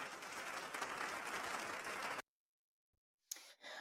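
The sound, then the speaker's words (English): A dense burst of clapping and snapping fills about two seconds, cuts off abruptly into silence, then a shorter patch of similar clapping returns at the end. No one speaks. “Um, so even though she's not a Summit Leaguer anymore, we still want to give claps and snaps to Megan Boyd on your 1000 points in your career.”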